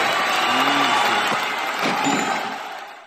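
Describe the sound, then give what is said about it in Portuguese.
A crowd applauds steadily for about three seconds, a dense, continuous wash of clapping that holds fairly loud before tapering off slightly at the end, with faint murmurs of voices mixed in. “Chicotinha, palmas para”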